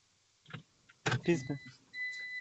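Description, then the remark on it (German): A car's parking beeper, heard over a caller's phone line into a call-in show while the car is being parked, sounds as a high, thin electronic tone that holds steady toward the end, following a burst of muffled voices and vehicle rustling. “Wer piepst da?”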